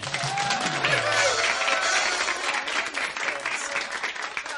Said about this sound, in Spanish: Recibamos con un aplauso al profesor Beethoven.